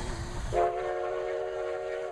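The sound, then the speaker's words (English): A train horn sound effect for the Reading Railroad show segment: one loud, steady blast lasting about a second and a half, after a brief low rumble of rail noise that continues beneath it. “Choo choo!”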